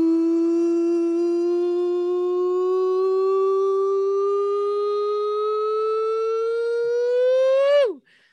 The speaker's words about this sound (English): It's the nonsense siren, and that means Sam Taz over to you.